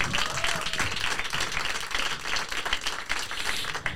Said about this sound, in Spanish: Así que un aplauso para esta gente curranta que lo hacen muy bien.